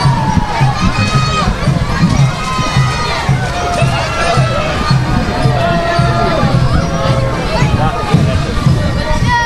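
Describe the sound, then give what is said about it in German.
A dense crowd at the Rose Monday carnival parade in Siegburg cheers and shouts continuously, with many overlapping voices, high-pitched whoops and children's yells forming a loud, steady roar throughout. “Jetzt aber ohrenfrei für den Siegburger Rosenmontagszug.”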